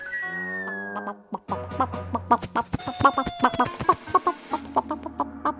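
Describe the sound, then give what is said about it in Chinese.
A chicken walking up clucks on its own, starting with a drawn-out, wavering call and then breaking into a quick, uneven string of short, sharp clucks. “一只鸡从不远处走了过来。”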